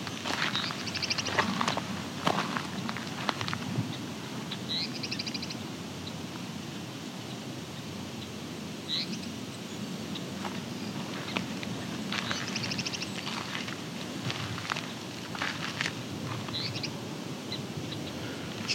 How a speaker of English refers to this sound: also little tink calls you might be hearing. Those are song sparrows.